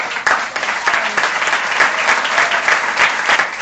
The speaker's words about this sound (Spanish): Así que desde ahí, gracias. Gracias y un aplauso.